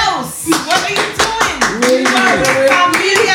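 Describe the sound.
A quick, steady run of sharp hand claps, close and fairly loud, repeating several times a second while voices talk and exclaim underneath.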